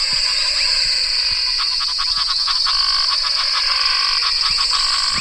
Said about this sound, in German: Also so klingt so ein Froschteich im Pantanal, wenn es gerade geregnet hat okay. und die Frösche mega glücklich sind.